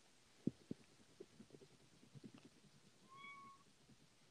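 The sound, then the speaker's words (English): A cat gives a single drawn-out, fairly faint meow near the end, after a stretch of soft low thumps and rumbling background noise. “I just heard that. My cat?”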